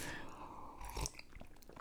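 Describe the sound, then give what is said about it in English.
A quiet sip of hot coffee, with a brief slurping mouth noise and a soft swallow afterward; no one speaks. “I'm drinking coffee right now, so please excuse the, the frequent pause for a sip.”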